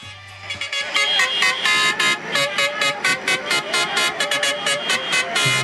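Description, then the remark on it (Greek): Loud, continuous horns of two tractors honk together at a farmers' rally in overlapping, pulsing blasts, with a rhythmic rise and fall throughout. “Αυτό είναι από τρακτέρ.”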